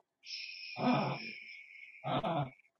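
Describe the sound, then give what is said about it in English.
Gabby, a small Yorkie dog, chokes and honks in two rough, throaty bursts, fairly loud, with a thin high-pitched whine running underneath. “Now the dog's the goes He chokes a lot.”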